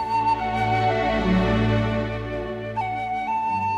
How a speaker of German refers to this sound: Hier hören wir den Soundtrack